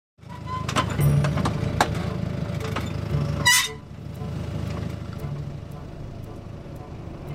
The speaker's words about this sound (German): fährt mit einem GPS-gesteuerten Traktor Düngemittel aus. Was auf der Straße noch Zukunftsmusik ist, ist in modernen Agrarbetrieben gelebte Realität.